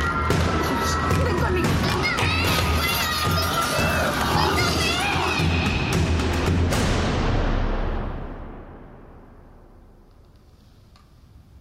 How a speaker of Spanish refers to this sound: A continuación los gritos de los niños. Pero por encima de todos, escuché los gritos del niño que había encontrado en la clase.